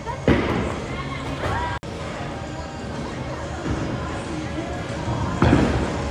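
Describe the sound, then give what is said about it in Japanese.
During a game of bowling, a ball crashes into pins with a loud clatter near the start, and another strike rings out near the end, over a noisy, echoing bowling alley with people talking in the background. “ボーリングを久しぶりにやりまして”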